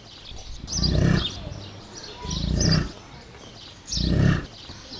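Three deep, rumbling roars of a bison, the North American buffalo, evenly spaced and each lasting under a second, with a low guttural grunting quality, fairly loud over a quiet outdoor background.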